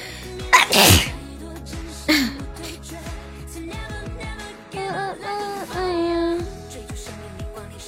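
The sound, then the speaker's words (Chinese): A sharp, loud sneeze bursts out early on, followed by a smaller breathy puff, while soft music keeps playing underneath with no one talking. “等一下，我想打个喷嚏。”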